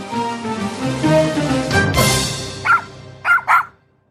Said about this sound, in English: wait till they start hearing those dogs, dogs barking. we're gonna. And it's a little dog.